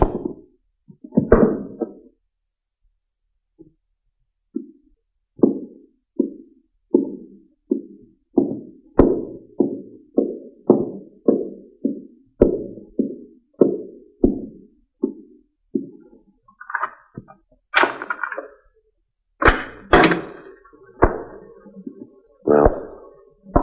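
Fists pound on a door in a steady series of dull, heavy thuds, about twenty in a row, then a few louder, more forceful bangs near the end, with no talking.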